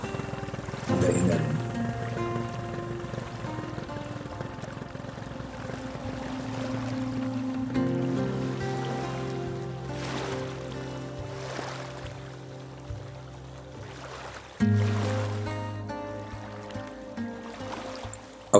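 A slender wooden motorboat's engine chugs in a steady drone as it moves along the Ganges River in India, with water washing past and a couple of louder surges partway through.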